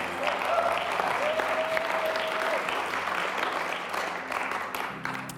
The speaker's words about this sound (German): Das verdient mal einen großen Applaus, würde ich sagen.